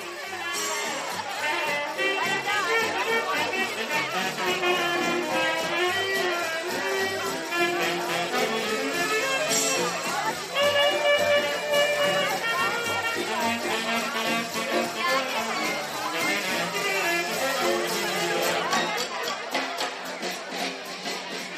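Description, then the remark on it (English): A crowd of people at an outdoor evening event, the Air Raid, chattering all at once, a steady, dense wash of overlapping voices with no single speaker standing out, holding at a fairly loud level throughout. “and we're standing amongst amongst amongst a crowd of people.”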